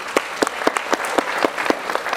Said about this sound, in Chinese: 大家的皮肤和身体有在保养的举手看一下。哇，还蛮多的，给自己一个热烈的掌声。